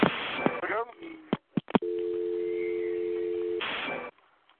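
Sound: phone line tone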